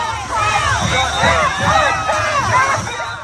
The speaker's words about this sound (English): This is the one that concerns me the most because there seems to be real momentum center of, of actually breaching the White House. They're trying to breach. They, they're screaming, break it down.